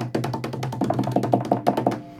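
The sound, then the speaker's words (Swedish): A short drum roll of quick, even taps, about a dozen hits in two seconds over a low steady hum, played alone with no talking. “Och, och nu, liten trumvirvel.”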